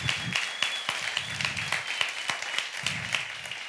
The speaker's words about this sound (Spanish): Si estás de acuerdo conmigo, dale un fuerte aplauso a tu Dios.